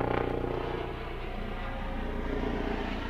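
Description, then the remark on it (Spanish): A helicopter passing outside a house drones steadily overhead, its low engine rumble and faint rhythmic rotor pulsing holding constant throughout, with no voices. “Hay un helicóptero pasando por fuera de casa.”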